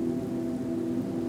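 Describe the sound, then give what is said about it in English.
Heavy rain pours down in a steady, unbroken rush, a dense continuous hiss with a low droning undertone and no pauses or voices. “He quickly realizes he is in a new area of the Inferno, one filled with more torment heavy rain falls down on the residents of the third circle.”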